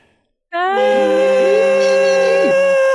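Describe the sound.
After a brief silence, several people vocalize at once to show their enthusiasm for the game Starfield, holding loud, sustained tones at different pitches, one a high squeal. Some notes slide upward and others dip as the voices sing together for a couple of seconds.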